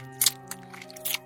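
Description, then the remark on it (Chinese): A voice imitates the lip smacking some people make while asleep, as if eating something very tasty: a few short, wet smacks and chewing-like clicks. The first and last are louder, with a fainter one between, over a steady low hum. “有些人睡觉会吧唧嘴啊，边吧唧边睡觉，好像在吃什么东西特别香一样。”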